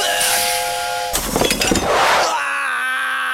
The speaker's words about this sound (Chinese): 当烧热的锅里加上水，水会被快速蒸发成水蒸气。